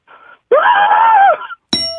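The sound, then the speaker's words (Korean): A person imitates the trumpeting of the elephant from a beer advertisement: a brief soft attempt, then one long, loud, nasal blare that rises and falls. A bright bell dings right after it. “그다음 맥주 광고에 나오는 이제 코끼리.”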